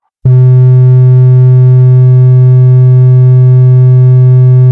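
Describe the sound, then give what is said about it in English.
A repeater access tone sent by a radio transceiver, heard without the receiver's usual blocking: a loud, low, steady buzzing hum that starts abruptly and drones on unchanged to the end, with no voices. “Your transceiver can send these tones to give you access to a repeater.”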